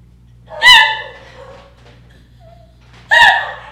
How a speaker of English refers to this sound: what are you screaming for? oh my god, I got scared. Of what? Your fucking food that was just delivered?